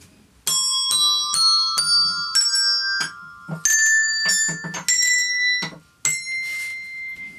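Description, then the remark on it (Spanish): Bright, ringing tones from colored bells struck one after another, about a dozen notes stepping upward in pitch like a musical scale, each note sustaining and overlapping the next, with no talking. “con ellos entender este, Mm, esta escala musical.”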